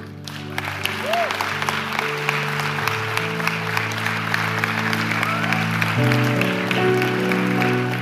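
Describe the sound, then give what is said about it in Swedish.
Dense, steady applause from a church audience for people called to the front keeps going for about eight seconds at an even level, with sustained keyboard or organ chords playing underneath and shifting midway. “Ge dem en större applåd.”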